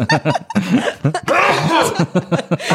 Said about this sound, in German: Kurz niesen.